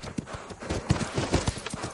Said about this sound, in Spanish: Un jinete cabalga por una playa.